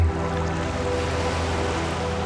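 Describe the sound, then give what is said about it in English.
Continuous churning, splashing seawater from two people diving headfirst into cold sea water fills the scene at a steady, fairly loud level, with a low rumbling hum underneath and no voices. “You dive in headfirst and I follow. The cold water on our faces is invigorating.”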